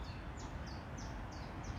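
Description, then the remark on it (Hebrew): Birds chirping, a quick regular series of about five short, high, downward-sliding chirps, fairly faint over a steady rushing background noise. “הכל מושלם, ציוד של ציפורים. אם תקשיבו.”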